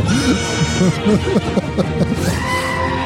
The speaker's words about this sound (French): Pour ceux ça intéresse, c'est fait entièrement à partir de samples de chèvres. Non, c'est pas des samples, c'est carrément des, extraits. Des vidéos, des ouais, de chèvres qui bellent